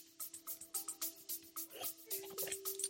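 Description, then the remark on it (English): Water pours steadily into a glass, its splashing burbles and a faint tone rising in pitch as the glass fills. Fairly quiet, with no talking. “So um, you know, get some water here.”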